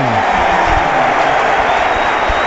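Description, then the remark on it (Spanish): A large crowd at La Rosaleda stadium applauds steadily as the footballer Antoñín is substituted off the pitch, a dense wash of clapping and murmuring voices that stays at an even level throughout, with no single sound standing out. “Escuchamos a la afición ahí aplaudir al de la palmilla de la palmilla a la Trinidad.”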